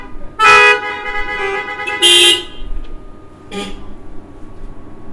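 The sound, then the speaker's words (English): Car horns honk three times in quick succession: two loud, sustained blasts followed by a shorter, softer toot, with a faint steady hum and no talking in between. “how come we're not getting honks on those?”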